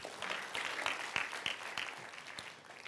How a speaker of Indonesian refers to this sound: Beli tepuk tangan dulu buat Yesus gitu.